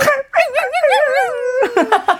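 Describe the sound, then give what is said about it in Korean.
A person imitates a dog with a string of whiny, yipping barks and a long wavering whimper, high-pitched and fairly loud, then a few quick short yips at the end. “언니 멍멍이 연기 최고예요.”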